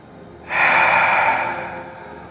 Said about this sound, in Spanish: Vamos a esperar, vamos a respirar fuerte y sonoramente. Recuerden respirar, inhalar, soltarlo fuerte, vamos a hacer unas 4 o 5.